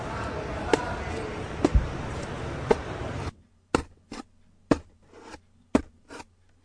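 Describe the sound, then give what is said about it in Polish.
A knife slices through cardboard, first with a dense scraping rasp, then a series of sharp, separate cutting strokes spaced about a second apart over a faint low hum. “No właśnie, to był dźwięk noża, który tnie karton.”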